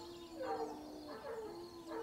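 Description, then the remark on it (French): A dog barks three times at a steady, unhurried pace, each bark slightly drawn out and tonal, over a faint constant hum. “Même les chiens ne sont pas contents.”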